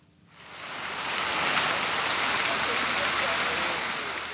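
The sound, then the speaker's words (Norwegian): A steady rush of splashing water from the fountain in St. Peter's Square, Vatican City, Rome, fades in quickly and holds as a dense, hissing wash of spray, with no voices over it. “Fontene på Petersplassen har sett og hørt mye.”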